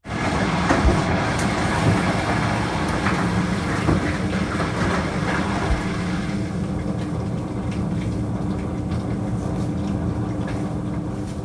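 A washing machine runs with a loud, steady mechanical rumble and churning, close by, its brighter hissing layer dropping away about halfway through while the low drone continues. No voices.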